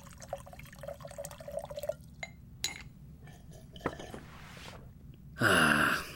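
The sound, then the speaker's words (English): Kali-fal is poured into a glass, starting with a few light drips and clinks, then ending in a short, loud gurgling rush of pouring. No one speaks. “Care for something to drink?”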